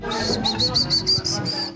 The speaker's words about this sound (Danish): Den gyldne løveabe, long call hedder den.